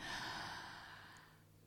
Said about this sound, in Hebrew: כן, אני עושה כאן תנועה של uh, נשימה פנימה ופתיחה של הפה, והידיים גם כן, כן, כמו איזה אה באוריתמיה, נגיד ככה.